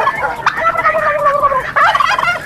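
turkey gobbling

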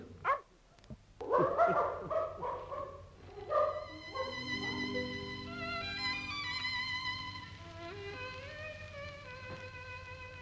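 dog barking

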